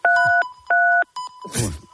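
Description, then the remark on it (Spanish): Electronic beeps in the background of a telephone call with José María García on a Radio Marca program: two steady, fairly loud tones in quick succession, a shorter third beep, then a brief rough burst of noise. “Digo, que estaba sonando, ahí un pitido ahí de, fondo.”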